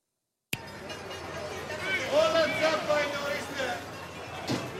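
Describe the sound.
A busy Greek market ambience bursts in suddenly, with a steady wash of crowd chatter and overlapping voices, plus occasional clatter and a thin whistling tone in the mix.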